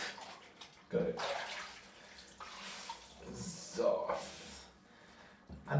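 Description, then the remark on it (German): Water runs steadily into a bathtub with an overflow drain, a broad, rushing hiss that swells and dips, while a voice speaks in short bursts over it. “Tja, der Überlauf, der schnappt schon das Wasser weg. Dass er nicht überläuft, die Wanne.”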